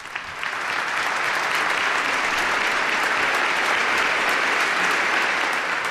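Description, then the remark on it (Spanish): Loud, sustained applause from a large crowd of the diocese as Don Ángel takes possession as the new bishop of Albacete, a dense wash of clapping that swells within the first second and holds steady without voices standing out. “Como nos recibido con un fuerte aplauso por parte de la diócesis, pues ahora todas las miradas no están puestas en él en este momento que acaba de tomar posesión de la diócesis de Albacete como, como nuevo obispo.”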